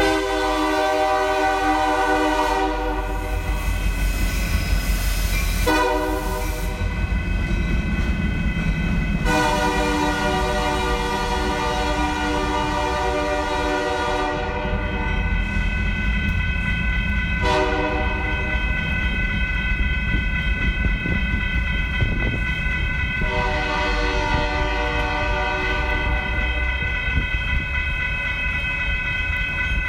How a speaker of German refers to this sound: Können wir jetzt nochmal den Zug hören? Selbstverständlich.